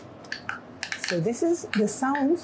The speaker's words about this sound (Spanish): Este es el sonido de una planta de vid luego de haber sido cortada. Una planta cortada emite este tipo de sonido, que fue grabado durante una hora, convertido a un rango audible para los humanos y condensado.